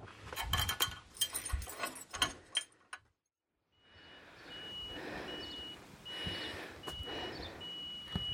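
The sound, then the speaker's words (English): A truck reverses with a steady engine rumble while a repeating high warning beep sounds at regular intervals, following a brief burst of mechanical clattering and a moment of quiet. “I had, a mobile number, and it said on the note something about reversing that, and that's why I was reversing that.”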